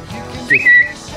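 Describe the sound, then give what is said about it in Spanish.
A short, high bird-like whistle sound effect: one bright tone that slides upward and then holds briefly, over a low, steady background hum. “A ver otra vez el pajarito, por favor.”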